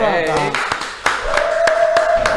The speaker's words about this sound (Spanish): Bien amigos, esta es nuestra versión digital del toque del medio. Un aplauso muchachos